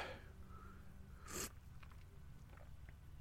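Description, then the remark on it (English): A single quick slurp of hot coffee, a short airy burst standing out against a steady low hum in the background, with no talking. “So, um, quick slurp of coffee.”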